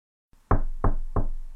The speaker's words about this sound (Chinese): 请进。李妹敲门进来